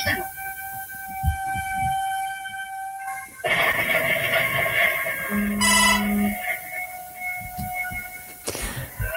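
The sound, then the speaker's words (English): A loud, piercing phone earthquake emergency alert blares with steady multi-tone wailing, shifting pitch partway through and joined by a low buzzing vibration, then cuts off near the end. “Boy, your phone really made the earthquake there.”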